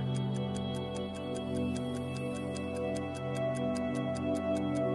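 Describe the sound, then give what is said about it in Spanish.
Clocks tick in a steady, quick, crisp rhythm, layered over a soft sustained humming drone that stays constant throughout. “En cada esquina de ese muro vas a ver unos relojes. Esos relojes te van a empezar a retar.”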